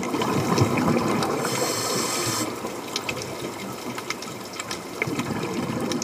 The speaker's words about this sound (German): Hört sich an, als wären wir gerade unter Wasser.